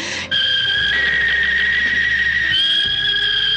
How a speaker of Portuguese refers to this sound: você escuta pelo radinho de pilha da galera o toque do gavião da Rádio Jornal, que é aquele toque clássico